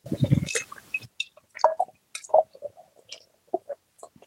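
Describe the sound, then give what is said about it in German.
Beer is poured from a can into a glass: a full gush of liquid for about a second, then scattered soft fizzing pops, drips and small clicks as the white foam settles on the very pale, slightly cloudy beer. No voices. “Jetzt ist das auch schon im Glas.”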